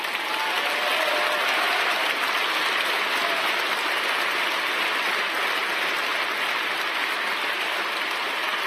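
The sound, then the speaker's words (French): A large audience applauds steadily, a dense, continuous wash of clapping that stays loud and even from start to finish, with no voices standing out. “Vous m'applaudissez, mais rappelez-vous bien ce que je suis en train de vous dire.”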